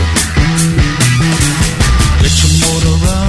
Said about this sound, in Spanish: Tema emblemático de esa película, ese clásico. Y suena así